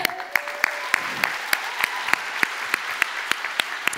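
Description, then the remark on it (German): An audience applauds to welcome a woman onto a stage, with steady, rhythmic clapping, sharp claps landing roughly three times a second over a softer wash of crowd noise, moderately loud and continuing throughout without any talking. “begrüßt mit mir ganz herzlich mit dem schönsten Applaus, den ihr habt, die Jule”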